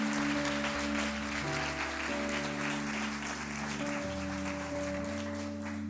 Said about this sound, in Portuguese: Você pode aplaudir ao Senhor por essa palavra, irmão?